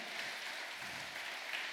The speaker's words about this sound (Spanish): Y si está aquí en esta noche, dele un fuerte aplauso y dígale, a Dios la gloria, sea tu nombre glorificado.